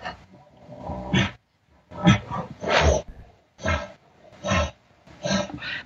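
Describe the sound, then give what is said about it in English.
A person vocally imitates a bull elk's aggressive calls, making a series of loud, growling, roar-like calls in short bursts separated by brief pauses, with breathy panting sounds between them, clear. “a more aggressive nature, you see, and then you're back to what you were doing and you're giving a few pants.”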